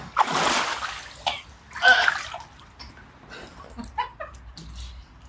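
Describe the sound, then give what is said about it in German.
Noisy water splashes onto a person in a few uneven spurts, the loudest at the start and again a moment later, with a gasp and brief voices reacting in between. “du machst mich nass! Du kommst, kommst aus dem Schwimmbad.”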